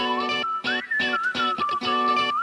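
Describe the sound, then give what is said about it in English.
A bright, sliding whistled melody rides over a pop backing track with steady rhythmic chord stabs, loud and upfront, with no voices. “That fucking whistle. Is it a whistle? Is it a theremin?”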